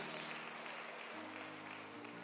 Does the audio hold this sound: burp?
no